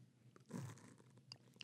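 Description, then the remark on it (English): A single slurping sip of hot tea from a cup, a brief airy gulp with a soft hum under it, followed by faint mouth clicks. “Oh, that's the tea.”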